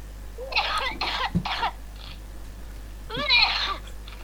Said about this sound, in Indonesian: seperti yang kalian dengar ada ada manusia ini yang sedang batuk